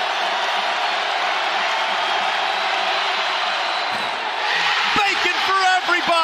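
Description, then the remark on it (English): A large basketball arena crowd at a Hokies game against the Hurricanes roars loudly and continuously after Jordan Miller misses a free throw, then erupts even more wildly near the end with scattered whoops, shouts and sharp claps over the sustained cheering. “After Jordan Miller missed that free throw, the crowd's going nuts.”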